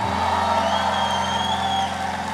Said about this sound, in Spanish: Si tú lo crees, dale un grito de gloria al Señor.